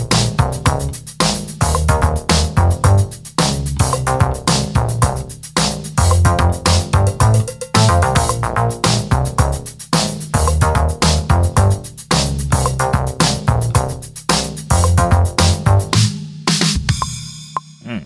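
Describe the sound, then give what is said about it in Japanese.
A bouncy, springy synth bass line is layered over a live bass guitar in a steady rhythmic groove with drums, with the other chord parts muted, loud and up front, with no one talking, ending with a short pause near the close. “で、まあ、さっきね、あの、普通の生のベース入れたやんっていう形なんですけど、うん、そこにね、シンセベースを足すことで、すごくポップな感じに聞こえるようになります。えー、はい。ということで、えー、シンセベースを重ねていきます。”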